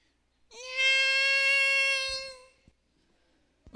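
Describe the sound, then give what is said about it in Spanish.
A voice imitates a baby's cry, the crying of the infant Moses in a Bible lesson: one sustained, high-pitched wail lasting about two seconds, fairly loud and steady, then cutting off, with no talking over it. “Bueno, escuchó yo un llanto de un bebé.”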